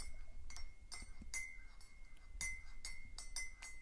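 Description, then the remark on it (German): A spoon stirs in a coffee cup, giving a run of light, irregular clinks against the ceramic with a thin ringing tone between strikes, over a soft low background rumble. “Normalerweise wäre es jetzt eigentlich so, dass ihr das Umrühren in der Kaffeetasse mehr von links hört und mich mehr von rechts eigentlich.”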